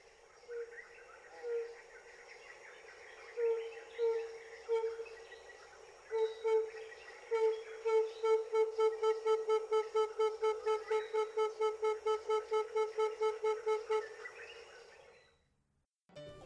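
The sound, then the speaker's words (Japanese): A tambourine dove calls in Uganda with soft, hollow coos that start spaced apart, then speed up into a steady, rapid run of notes. Insects and other birds chirp faintly in the background. “今日ご紹介するウガンダの鳥はタンバリンバトです”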